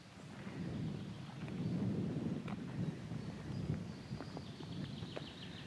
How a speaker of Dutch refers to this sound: Er staat wat wind vandaag.